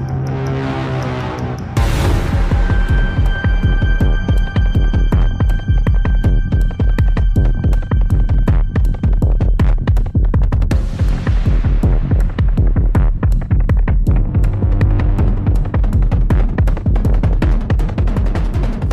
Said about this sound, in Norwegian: Lyddesignet herjer. Det smeller som bare filleren. Og så episk musikk, da. Bare hør på dette.